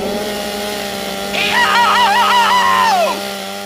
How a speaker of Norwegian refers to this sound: Smak på motorsaga, din helsikes kjøter.